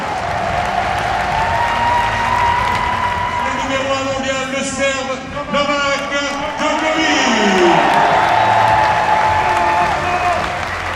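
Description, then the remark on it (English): A large crowd applauds steadily, with cheers and whistles rising through the dense clapping, which stays loud and sustained the whole time as a voice carries over it on an amplified system. “It feels really good to hear the audience.”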